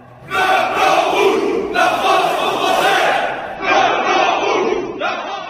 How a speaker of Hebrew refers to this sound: צרפת בוערת. סגרים במרסה ובליון, זיקוקים ומהומות ענק ברחבי פריז, אלפים עצורים, ביניהם גם ילדים בני 12, זה פשוט משוגע.